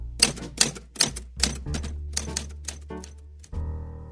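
A typewriter clacks out about a dozen sharp, uneven keystrokes, loud and crisp, then the typing stops and a steady ringing tone sounds at the end.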